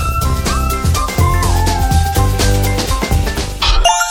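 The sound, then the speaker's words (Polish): A bright, cheerful jingle with chiming bell tones and bouncy rhythm plays loudly for about four seconds, ending on a shimmering flourish like a game-show win sound; it is the win sound of the Keno lottery game. “To, co słyszysz, to dźwięk Keno.”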